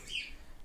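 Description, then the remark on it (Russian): A single short, high-pitched chirp from one of two pet parrots, named Van Gogh and Salvador, sounds faintly in the background, followed by quiet room noise and no speech. “Да, у меня живут два попугая.”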